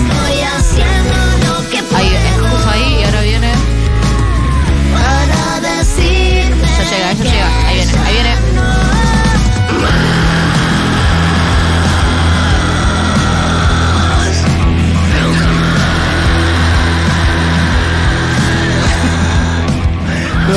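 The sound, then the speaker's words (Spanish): Loud, dense heavy rock plays throughout, with guttural screamed vocals over distorted guitars and drums; about halfway through it shifts into a thicker, more continuous wall of sound. “en el mundo pequeño hay como una pared de guturales, pero pasado el minuto en el y medio”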